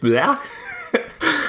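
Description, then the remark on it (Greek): A voice mimics someone hawking and spitting: a short throaty vocal gurgle, a sharp click, then a breathy, hissing spit burst, all fairly loud. “zoom in στο Θεό έτσι αυτό το οποίο αρχίζει ξαφνικά φτύνει πετάει”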